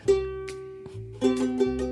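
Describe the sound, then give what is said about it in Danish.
Two bright ukulele strums ring out, each chord sustaining and slowly fading before the second strum lands with fresh attack, then rings on to the end; a hand-held ukulele used as a quiz buzzer. “Ja, det er en ukulele. Jeg sidder med i hånden.”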